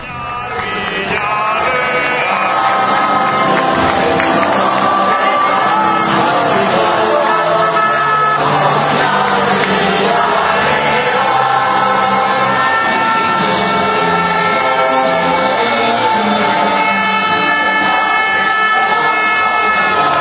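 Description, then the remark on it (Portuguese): A crowd at El Madrigal stadium celebrates at the final whistle of the match against Espanyol, a runner-up celebration, in a loud, unbroken din, with sustained horn-like blasts and voices singing and chanting over one another for the whole stretch. “É só, é só um áudio, assim, é, pra, pra gente se sentir dentro do estádio El Madrigal.”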